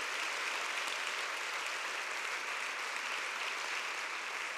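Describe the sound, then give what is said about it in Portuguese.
Steady, dense applause from an audience applauding the Lord, a continuous wash of many hands clapping at once, moderately loud and sustained for several seconds with no voices on top. “Aleluia, você pode aplaudir o Senhor.”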